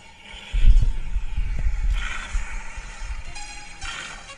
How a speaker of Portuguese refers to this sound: Eu, mano, a gente, eu sou apaixonado em carro. Olha o barulho, olha o barulho.